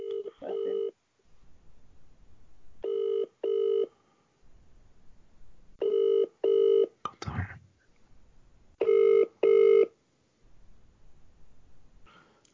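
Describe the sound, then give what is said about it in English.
A telephone rings in repeated double bursts of steady, buzzy tone, four pairs separated by quiet pauses, with a brief clatter partway through and no talking. “Okay, I'm going to ask him to call me back.”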